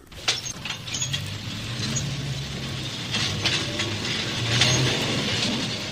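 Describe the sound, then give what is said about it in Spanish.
A powerful locomotive, started from the rail terminal in the Constitución district by an escaped psychiatric patient, races along the railway track at full speed with a steady, loud rumble, low droning tones and recurring metallic clatter and rattling bursts, with no voices present. “Hábilmente se introduce en la cabina de una potente locomotora y poniéndola en marcha se lanza a recorrer la vía férrea a toda velocidad.”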